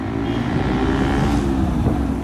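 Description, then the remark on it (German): A boda boda motorcycle taxi engine drones steadily in Kampala, a continuous low rumble blended with the wash of surrounding traffic, with no one speaking. “Zu vielen Gesprächsterminen fährt mich ein Vertrauensmensch der queeren Gesprächspartner, ein Motorradfahrer mit einem Boda Boda, dem in Kampala üblichen Motorradtaxi.”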